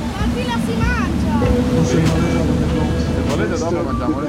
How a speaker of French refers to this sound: là on vient de quitter Notre-Dame. Qu'est-ce que tu penses de la vue à bord du bateau-bus bah, C'est une vue magnifique parce qu'on voit presque tous les monuments de Paris, on voit tout.